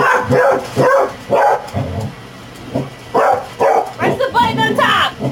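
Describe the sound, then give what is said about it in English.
A dog barks excitedly at a Roomba robot vacuum bumping into a toilet, a rapid series of loud yaps and bow-wows, with voices talking around and over the barking. “So when the Roomba started bumping into the toilet, my dog just started going absolutely nuts.”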